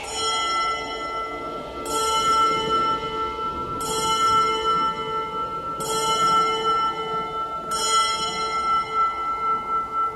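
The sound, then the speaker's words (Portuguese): A convent church bell tolls five times at a slow, steady pace, each strike about two seconds apart, its rich ringing hum sustaining between blows with no voices present. “Tocara como que por vontade própria, ou seja, cinco badaladas.”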